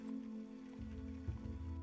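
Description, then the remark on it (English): Light drizzling rain patters in a soft, steady hiss while riding in a wooden cart, with the cart's low rumble beneath it and a brief bump of the carriage partway through. No voices. “Your takes a little while to have the um, have the uh, bumping of the carriage and the drizzle of the rain that will keep you grounded from doing something like this.”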